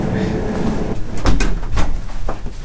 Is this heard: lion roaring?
no